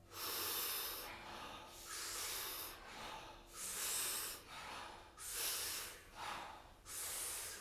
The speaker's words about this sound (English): Real quick, what we're going to be doing is close to 40 powerful breaths into the body through the mouth. And the exhale is also through the mouth, but it's a soft exhale. We do it rhythmically, we do it together, and it sounds like this.